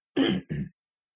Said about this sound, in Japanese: ちょっと咳込みます。